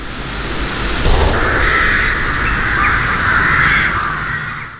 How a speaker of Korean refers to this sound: 총성 소리와 함께 까마귀 떼가 날아오릅니다. 고흐가 생을 마감하기 전 그렸던 까마귀가 나는 밀밭이 오감을 통해 생생히 느껴집니다.